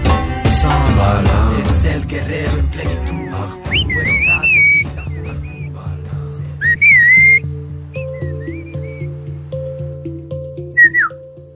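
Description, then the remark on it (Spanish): Mazatec whistled speech: several short, gliding whistle phrases with pauses between them, clear and fairly loud over a steady low musical backdrop that follows a busier, noisier opening. “El mazateco chiflado nace a través de la necesidad de comunicarnos a grandes distancias.”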